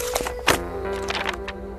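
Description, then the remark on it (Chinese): Book pages in a classroom flip several times in quick, uneven succession, each a short papery rustle, with one louder turn standing out over a steady low background hum. “我听见教室里的翻书声”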